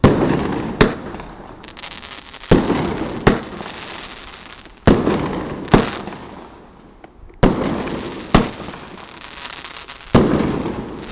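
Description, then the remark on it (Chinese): Larger fireworks are lit and explode in a loud series of about eight sharp booms, each followed by a crackling, rumbling tail that fades before the next blast, at slightly uneven intervals with no talking. “这种烟火声音应该是比枪声还大，然后不晓得会不会有漂亮的光呢？”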